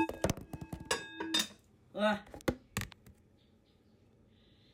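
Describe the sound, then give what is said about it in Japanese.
A smartphone falls during cooking and clatters down in a quick burst of sharp knocks and taps, a voice gives a short startled exclamation, then a few more clicks as it is picked back up. “スマホが落ちたなんでこんなバタバタしてうまくいくといいけどね”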